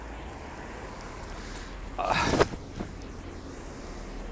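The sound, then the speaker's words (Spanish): Rain patters steadily on an open umbrella, a constant hiss with a louder rustling burst midway; a person briefly exclaims. “Bueno, seguro que podéis oír ahí el repiqueteo del agua en el, en el paraguas.”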